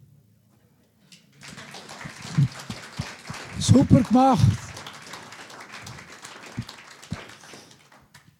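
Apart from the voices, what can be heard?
audience applause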